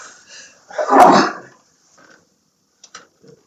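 human body sound, sneeze

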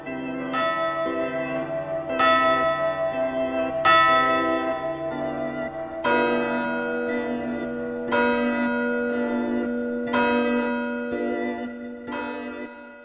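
signal or alarm, church bells ringing

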